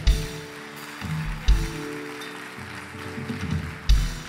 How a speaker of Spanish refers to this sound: Dele un aplauso a Dios el que lo quiera.